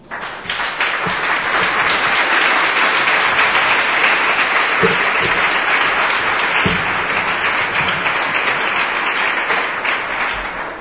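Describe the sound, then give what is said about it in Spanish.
Sustained applause from an audience at the end of a talk, a dense, steady wash of many hands clapping at once, loud and continuous for around ten seconds before easing slightly at the end. “Os dejo que aplaudís porque así os despertáis.”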